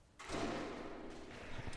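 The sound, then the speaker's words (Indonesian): A heavy steel shelter door swings shut with a loud, grinding metallic rush lasting over a second, with a low rumbling weight. No voices are heard. “Oh, 철문 안쪽에 또 철문이 하나 더 있고요.”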